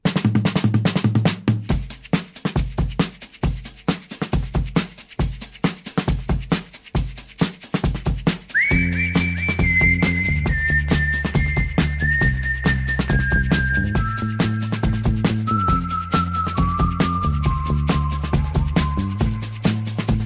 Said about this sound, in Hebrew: הם המשיכו לשרוק זה לזה ולחייך.